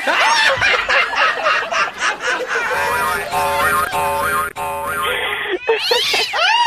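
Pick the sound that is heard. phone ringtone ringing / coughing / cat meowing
cat meowing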